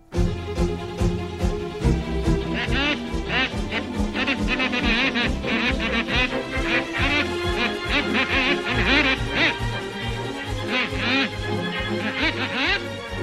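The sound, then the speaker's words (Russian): Comic squawking horns honk in short, speech-like bursts over a full orchestral score, standing in for the solemn speeches of the speakers in a film's opening scene, mimicking the rise and fall of talking voices in a loud, continuous passage. “вот эти смешные клаксончики, которые которые звучат в открывающей сцене огней большого города вместо торжественных речей выступающих”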